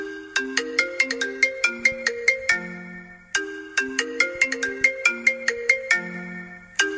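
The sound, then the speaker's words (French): The iPhone default ringtone, a bright marimba-like melody of quick plucked notes, plays clearly through two full cycles and starts a third, with no voices over it. “Évidemment, on reconnaît tous la célèbre sonnerie d'iPhone.”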